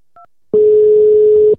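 A short, quiet keypad beep from a phone, then a louder steady telephone tone holds for about a second over a faint line hiss as an outgoing call to an interview guest connects. No one speaks.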